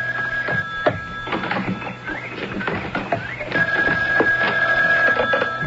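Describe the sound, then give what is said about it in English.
A telephone rings in two long, steady bursts separated by a pause, with scattered clattering and bumping noises throughout; nobody speaks. “Oh, oh, excuse me. There's the phone.”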